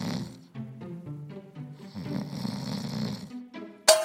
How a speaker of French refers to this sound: on tâtonne pour s'approcher des ronflements qu'on entend de l'autre côté de la pièce.